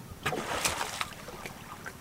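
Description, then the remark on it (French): Pink river dolphins breathing at the surface of the Nyamunda River as they lift their heads out of the water: a handful of short, breathy puffs at irregular intervals, over a steady wash of water and wind. “C'est eux qu'on entend respirer autour de moi lorsqu'ils sortent la tête de l'eau.”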